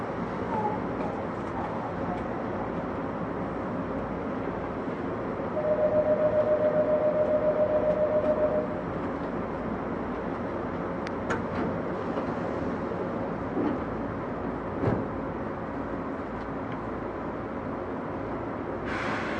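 A Tokyu 8500 series train running between Omotesando and Azamino, with a steady low rumble and rattling noise throughout. A sustained tonal whine appears for a few seconds partway through, and occasional clanks punctuate the continuous running sound.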